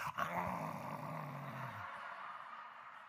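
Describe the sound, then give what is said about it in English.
A person imitates a growling roar, demonstrating how their grandson used to roar: one loud, rough guttural rumble held for almost two seconds before trailing off into a breathy fade. “And the song would come on, power of the roar. And he would do this.”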